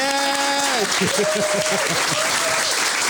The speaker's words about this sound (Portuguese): Agora bate-se palmas.